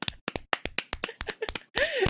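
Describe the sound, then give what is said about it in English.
Roughly nine sharp hand claps in a steady, quick rhythm, followed by a brief burst of voice-like noise at the end. “We need like just 30 seconds of just clapping for our two patrons.”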